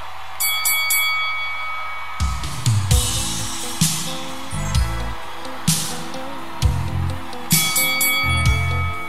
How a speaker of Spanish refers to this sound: Campana